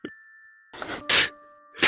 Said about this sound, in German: Mich interessiert deine Klingel. Deine Glocke. Das ist meine Glocke.